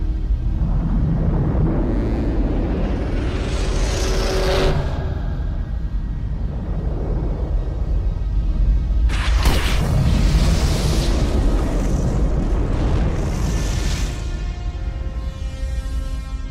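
Dense, reverberant film ambience of patrol cars, cars and fire, with a strong synthesizer reverb effect from a Lexicon 224X: a constant low rumble with bursts of roaring, fire-like noise and deep booms sweeping through at a few points. No talking.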